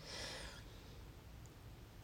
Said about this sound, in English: taking a few more breaths through bro- both nostrils. We're going to engage in a really divine breathing practice just to help bring more harmony to our experience,